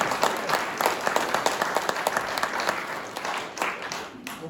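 An audience applauds its scholars steadily, many hands clapping in a dense, even patter that holds for several seconds before thinning out toward the end.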